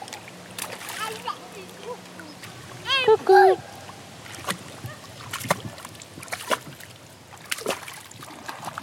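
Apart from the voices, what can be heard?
water splashing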